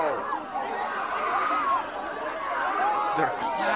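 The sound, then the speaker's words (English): A large crowd at a college roars with cheering and laughter as a man has his flag taken away, a dense, steady wall of many overlapping voices that holds loud for the whole stretch, with a few shouts rising above it. “and laughing and cheering that that goofball got his flag taken away from him.”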